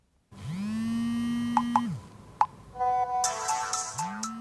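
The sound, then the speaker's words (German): A mobile phone ringtone plays clearly, a smooth rising-and-falling tone with sharp clicks and beeps layered over it, then bright electronic chimes before the melody starts again. “Geräusche, die in den Schulen Bayerns nicht zu hören sein sollten, denn dort gilt Handy aus und ab damit in die Tasche.”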